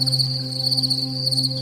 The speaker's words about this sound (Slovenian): V tem vrtu bo poslušala murne.